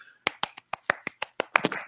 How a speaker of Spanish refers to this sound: Aplausos.